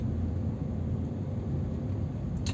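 Steady low rumble inside a car, recorded on a phone, a constant droning hum filling the lows with a faint brief high hiss near the end, no one speaking.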